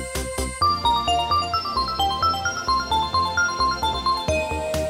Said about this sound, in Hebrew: פה נכנס פעמון כזה 80's שהיה חובה באותם הזמנים.